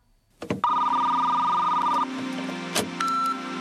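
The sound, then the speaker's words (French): A telephone rings with a loud, steady electronic trill lasting about a second and a half, framed by sharp clicks, then a brief higher beep follows, opening the classified ads segment of the radio show Gouinement Lundi on FPP 106.3 FM. “Dring dring, il est l'heure d'écouter les petites annonces de Gouinement lundi sur les ondes de FPP 106.3 FM.”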